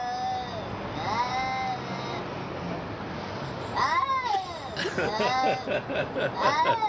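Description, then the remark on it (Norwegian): A cat lets out a series of drawn-out, warbling yowls that rise and fall in pitch, growing louder and more strained toward the end, harsh over a faint background murmur. “det var nå katta som gikk eh, av med seieren i verdens styggeste dyrelyd”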